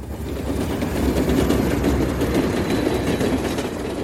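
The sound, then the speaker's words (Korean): A train that runs four times a day rolls by on rail tracks, a loud, steady low rumble layered with quick rhythmic clatter from the rails, holding even for the whole stretch with no voices. “선도에선 똥간이와 서장, 그리고 은간이 탄 오토바이가 철로를 넘어갈 때 하필 하루 네 번 운행하는 열차가 눈치도 없이 달려들어와 경찰을 포함한 군중을 가로막았다.”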